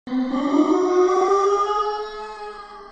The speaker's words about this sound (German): Die Zombies knurren